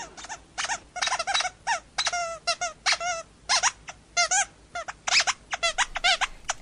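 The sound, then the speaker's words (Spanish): A rubber squeaky doll toy squeezed over and over, giving a rapid, uneven run of shrill, high-pitched squeaks, some wavering in pitch, with no talking. “Juega, pero por favor deja de apretarme.”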